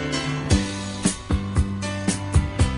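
A full rock band plays an upbeat pop tune, with punchy drum hits landing on a steady beat over sustained guitar chords and a bass line, loud, with no singing or talking.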